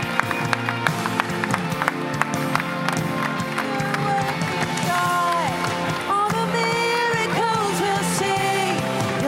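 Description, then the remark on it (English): A worship crowd claps and cheers steadily as people come down to the front, with scattered whoops and excited voices over dense, ongoing applause that stays loud throughout, with music-like tones sliding underneath. “Come on, we're going to applaud, we're going to celebrate, we're going to worship as they come on down.”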